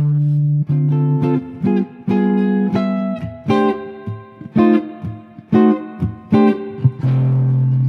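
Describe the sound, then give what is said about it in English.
A jazz-style ending played alone on a single instrument: a run of punchy, rhythmic chords going through a 2-5-1, the four chord F7 and an F sharp diminished seven, then settling onto a final held one chord in C that rings out as the resolution. “this is just a classic ending that … and his band would do all the time to end songs”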